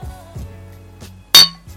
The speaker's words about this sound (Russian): А, чокнемся.